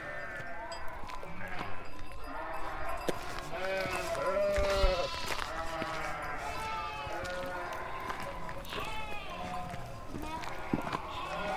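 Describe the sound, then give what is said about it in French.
Many ewes, separated from their lambs, bleat constantly in overlapping calls, a loud flock, with scattered hoof clatter and shuffling as they cross the ground. “Donc là, on a séparé les brebis des agneaux. Donc là, elles traversent et puis elles vont les manger.”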